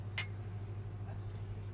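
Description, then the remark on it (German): A single bright clink of glasses touching in a toast, short, ringing briefly over a steady low background hum, with no talking. “Prost.”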